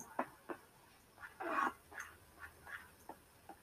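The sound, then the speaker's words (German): A lamb bleats over and over in short, thin cries, with one longer drawn-out bleat in the middle. The calls are fairly quiet, and no one speaks. “Warte, Digga, von wo kommt dieses Schaf?”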